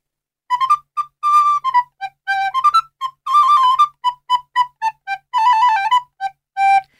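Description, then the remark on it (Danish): A solo recorder plays a short, simple Renaissance-style tune of crisp, separately tongued notes in a lively, dance-like rhythm, in a very simple musical idiom. The playing is clear, with no talking. “Og øh, der var man i renaissancen sådan meget livet af landevejen, og øh, og spillede for eksempel sådan med en klang på den her måde.”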